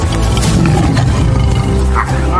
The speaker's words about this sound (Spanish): El león. El felino más icónico del mundo.